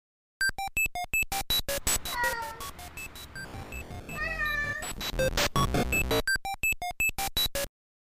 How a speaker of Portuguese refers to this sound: E para manter essa temática felina, as vírgulas e transições terão sons de gato.